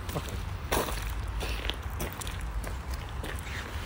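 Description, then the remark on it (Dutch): Footsteps walking through a cemetery at an unhurried, slightly uneven pace, each step a soft crunching tap, over a steady low outdoor rumble with no talking. “Maar nu wel. Hier lopen.”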